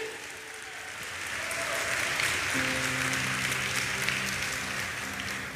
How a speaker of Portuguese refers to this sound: Se você faz parte desse povo, diga amém e aplauda ele.